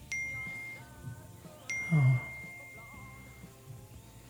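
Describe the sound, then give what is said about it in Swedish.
Many short, bright phone text message notification chimes sound one after another at irregular intervals, with brief low buzzing of the phone vibrating in between, over a steady background hum and no talking. “Din telefon vibrerar igen och får massa sms-signaler igen. Men nu är det jättemånga på raken som bara kommer.”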